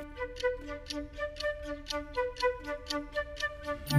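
A clock ticks steadily and briskly, each tick crisp, over a soft sustained musical drone; no one speaks.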